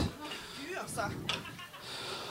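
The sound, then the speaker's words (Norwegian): Chairs scrape and thump as they are shifted around while people swap seats, a couple of short bumps over a steady room hum, with faint voices in the background. “Ja, øh, Kanskje du vil sitte her, eller? Bytt stol.”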